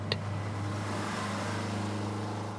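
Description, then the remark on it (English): A bus engine drones steadily as it drives, a low continuous rumble with road noise, broken by a single sharp thump right at the start as the bus goes over a speed bump. “The bus thumped into the air and thudded back to the ground.”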